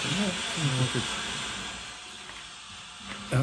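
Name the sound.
rushing waterfall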